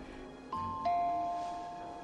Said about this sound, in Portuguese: Não é a campainha? Caralho, é ele, né? É. Ele tocou a campainha.